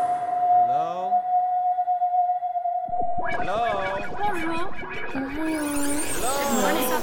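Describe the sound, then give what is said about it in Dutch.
A dial-up modem dials in over an old-fashioned telephone line: a steady dial tone with a few quick beeps, then loud warbling handshake tones, hisses and screeching chirps that grow harsher toward the end. “Want het was de tijd dat je nog met een modem inbelde op een ouderwetse telefoonlijn.”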